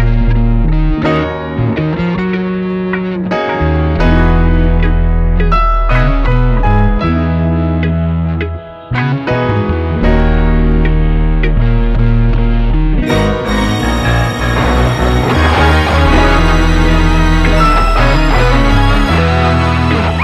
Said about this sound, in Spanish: Vamos a escuchar un poquito más y escuchamos el solo de guitarra mientras continuamos con el final de nuestra review